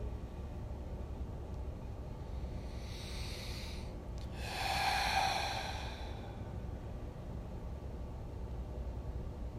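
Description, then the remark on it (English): A slow, deep breath drawn softly into the belly and then released in a fuller, airy exhale, quiet against a low steady background hum, with no talking. “breathing into our belly.”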